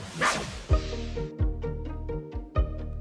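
A dog barks several times in short, sharp bursts spaced unevenly over a few seconds, with a steady musical tone sustained underneath. No one speaks.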